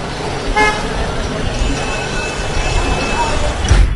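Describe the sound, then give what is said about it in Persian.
Steady roar of road traffic with a loud car horn honking early on, then fainter honks and passing vehicles in a constant wash of street noise. “فوتبال، جاده”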